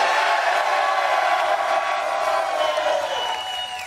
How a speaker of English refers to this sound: but y'all already know we out here in AZ. The crowd is crazy. Go crazy.